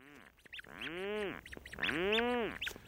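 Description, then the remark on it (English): Rhinoceros auklets at a night colony in the Strait of Juan de Fuca off the Pacific coast, on a July night: two drawn-out, harmonically rich moaning groans, each about a second long with a rising-then-falling arc, separated by short clicky notes, fairly loud with no talking. “Rhinoceros auklets are relatives of puffins medium sized, dark gray duck like birds that spend their days at sea and then return at night with fish for their single chick hiding deep in a burrow.”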